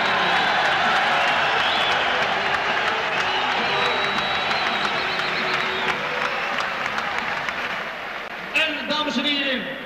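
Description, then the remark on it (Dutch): A crowd at a boxing event applauds and cheers loudly and steadily for an undefeated boxer from Amsterdam, a dense wash of clapping with shouts mixed in, tapering slightly before a voice cuts through near the end. “En natuurlijk eh, geweldig applaus hiervoor.”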